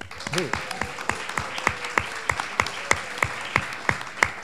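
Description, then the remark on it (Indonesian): An audience claps in a steady, rhythmic beat, the sharp claps evenly spaced, with a voice briefly audible near the start. “Tepuk tangan dong, Bu.”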